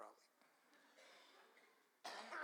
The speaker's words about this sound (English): and when one coughs, they all cough in the presence of the Lord. So why don't you just let it all out? Worship, prayer, praise, or a cough, whatever. My goodness. I brought something home from wherever I was.